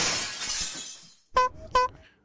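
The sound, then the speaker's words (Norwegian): Glass shatters in a loud, bright crash, its tinkling debris hissing away over about a second, then two short honks from a clown's squeeze horn. “Og ting som knuser også, er jeg veldig glad i.”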